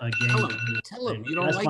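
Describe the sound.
A phone wake-up alarm rings with a steady, repeating electronic tone, loud, while people talk over it throughout.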